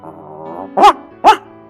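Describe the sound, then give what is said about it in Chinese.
Two sharp, high yaps from a puppy, evenly spaced about half a second apart, sounding over a soft tonal hum in the background. “这时候，一只小狗走了过来。”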